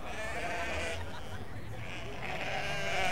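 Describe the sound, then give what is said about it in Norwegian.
Sheep bleating steadily, several overlapping calls from a flock of about 20 sheep in a farm-animal area of a park, coming toward the speakers, with a constant background wash and no clear speech. “Uh, folkens, hvorfor kommer alle sauene bort mot oss? Det er sikkert 20 sauer.”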